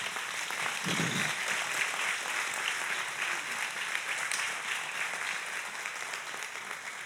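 A church audience applauds steadily, a dense wash of many hands clapping at an even level throughout, with no one speaking over it.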